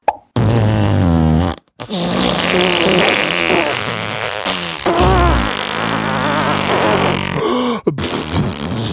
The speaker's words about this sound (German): Die Explosionen sind mal kurz vor einen Furz gewichen.